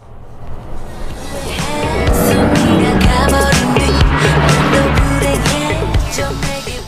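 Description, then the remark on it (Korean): A car rolls past on the road, heard from a car driving alongside, with booming, bass-heavy music thumping from it. Road noise swells to a peak midway and eases off, and the music is partly buried under the rush. “도로 달리고 있는데 옆에 차가 지나갑니다. 쿵쾅쿵쾅 소리 들릴 거예요. 음악 듣고 있어요.”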